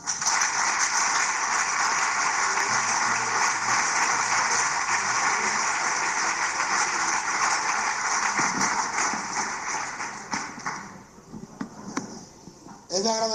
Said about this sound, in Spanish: y para ello os pido un fuerte aplauso.